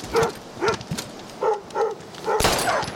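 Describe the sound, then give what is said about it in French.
A dog gives a string of short, high yelping barks, about six in irregular succession, fairly loud, with the last ones blurred by a burst of rough noise. “Quel cabot ce chien.”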